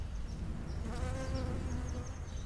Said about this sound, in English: I don't know if you can hear it, but a bee is basically hugging the stamen and wiggling around. And that's it. It flew away.